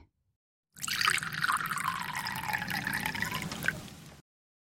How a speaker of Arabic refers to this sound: ملأت النادلة الكأس حتى آخره